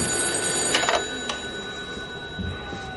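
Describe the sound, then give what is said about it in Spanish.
A telephone rings with a few quick, bright bell bursts early on, moderately loud, over a steady background hum with no one speaking. “el teléfono.”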